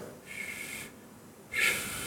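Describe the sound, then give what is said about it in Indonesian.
Two steady exhalations blown through pursed lips like whistling, a breathing technique to use when out of breath, each a breathy hiss with a faint whistle-like tone, separated by a short pause; fairly soft, with no talking. “tiup napasmu 10 kali tiup seperti siul tapi nggak siwek”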